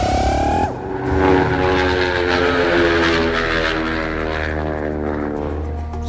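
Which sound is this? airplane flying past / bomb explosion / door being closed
airplane flying past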